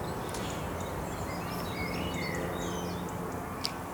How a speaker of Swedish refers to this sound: Här uppe på Lindhagens kulle med eh, fåglar, en koltrast bland annat, som sitter mitt framför oss här nu på ett justitieråds gravvård.